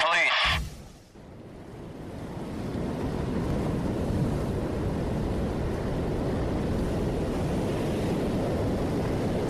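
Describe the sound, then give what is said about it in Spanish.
Sea waves roar steadily in a dense, continuous wash of surf that swells up after a brief sound at the very start, then holds at a fairly loud, even level. “Seguro más de uno de ustedes no necesita escuchar nuestra historia sonora para disfrutar de los sonidos del mar porque nos están oyendo desde la playa”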